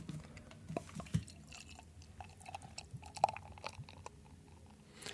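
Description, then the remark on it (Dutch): Brand up-typer pilsner beer is poured slowly and carefully into a glass, quiet, with a soft fizzing crackle and small liquid drips scattered throughout, leaving a foam head of about 2 centimetres, and no one speaking. “Hij probeert hem zorgvuldig oh, in te schenken.”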